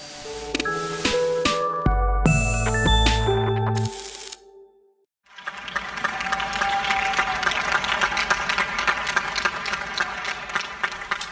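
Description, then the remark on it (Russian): A short musical phrase of sustained tones fades out, and after a brief pause comes steady, dense applause from people clapping on balconies during the global COVID-19 lockdown, from the Sounds from the Global COVID Lockdown project, a continuous crackling patter that holds for about six seconds. “И вот аплодисменты, которые вы только что слышали, я взял из нового проекта Sounds from the Global COVID Lockdown.”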